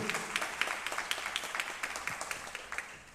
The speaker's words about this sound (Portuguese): Vamos aplaudir a mais em gratidão.